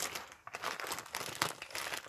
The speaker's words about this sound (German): Oh, nein. Das ist nämlich einfach nur eine leere Plastiktüte.